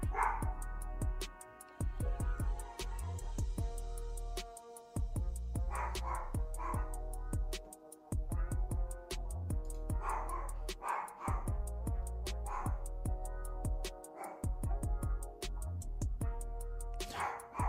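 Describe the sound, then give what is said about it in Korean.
A dog barks repeatedly in short, loud bursts, spaced every second or two, over a steady background of rapid, regular ticking and a sustained tonal hum. No one speaks. “야, 개 짖는 소리 좀 안 나게 해라.”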